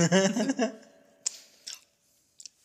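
Crisp crunches of someone chewing greasy potato chips: three or four sharp bites spaced unevenly after a brief voiced sound at the start, with quiet pauses between them.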